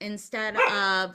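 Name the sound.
dog barking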